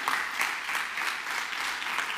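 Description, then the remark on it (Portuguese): A crowd claps steadily for the Lord during a preacher's sermon, a dense wash of many hands applauding together, sustained and even throughout with no voices standing out. “Quem está aqui, dá um aplauso ao Senhor aí.”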